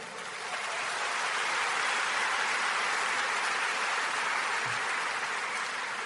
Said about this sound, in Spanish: para que también pida un fuerte aplauso desde acá, por favor.